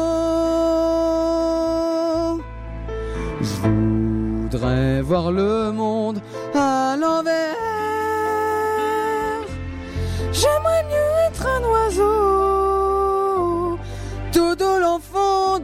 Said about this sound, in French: Bravo, bravo, bravo. Parce que Dieu sait que cette chanson n'est pas facile du tout.